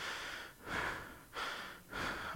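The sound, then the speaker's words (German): Quick, shallow chest breathing, demonstrated as breathing into the upper body rather than the belly: about four rapid, airy breath cycles in a steady rhythm, each a soft rushing hiss with brief dips between, and no talking. “Und zwar schnauf in den Bauch, nicht in Oberkörper. Es gibt ja Leute, die schnaufen so.”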